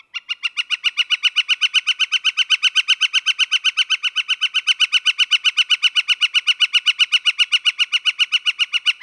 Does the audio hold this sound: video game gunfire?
no